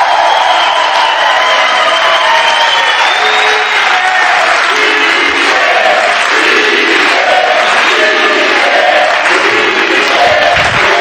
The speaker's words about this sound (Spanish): Ole. Gracias por este aplauso espontáneo. parece que no lo hablamos antes. Pero es que es cierto que parece que antes le he pedido un aplauso, tengo que ser honesto, le he dicho, oye, cuando yo entre de un aplauso fuerte